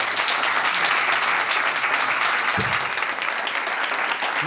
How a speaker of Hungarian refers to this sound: Én nagy tapsot szeretnék kérni Mucsi Zoltánnak.